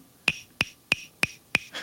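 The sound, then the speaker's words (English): Five crisp, evenly spaced knocks on the mouth of a toy musical frog, each with a brief bright ring, followed by a softer, duller tap. No voices, fairly quiet. “Like so, the back makes this sound and then you can hit it like at, on the mouth, and it makes like a”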